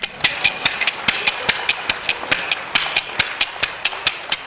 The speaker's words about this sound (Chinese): 没有掌声，我就在这拍。